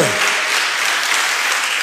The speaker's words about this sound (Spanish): Uh, dele un aplauso al rey. No se quede con las ganas, por favor.